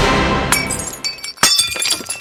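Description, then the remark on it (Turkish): A tea glass cracks and shatters while a singer drinks tea at his home in Fulya, the crack blamed on the evil eye. Sharp bright breaking bursts come around the middle, followed by scattered tinkling shards, loud with no talking. “Fulya'daki evinde 3-5 gündür dinlendiği iddia edilen …'in çay içerken nazardan bardağı çatladı.”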